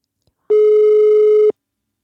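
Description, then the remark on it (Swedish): A single one-second beep of a telephone ringback tone, a steady mid-pitched electronic hum heard clearly, with silence before and after, as a call is placed to a political party's press office. “Så jag började med att ringa presstjänsterna för de olika partierna.”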